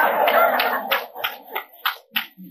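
An audience breaks into a short burst of clapping that starts dense and quickly thins out to a few scattered claps before stopping.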